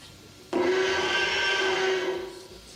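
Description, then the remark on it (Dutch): A baby elephant lets out one loud, harsh, high-pitched scream that starts abruptly, holds steady for about two seconds, then trails off. It is heard alone, with no talking. “Here it is by itself, the little cute baby elephant and the high-pitched scream that it made.”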